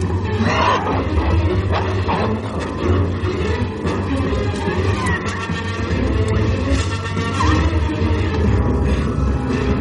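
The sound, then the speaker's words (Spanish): Wolves fight in a loud, continuous tangle of snarls, growls and roaring yelps, dense throughout with no pauses and no talking. “Corren hacia donde se están peleando los lobos.”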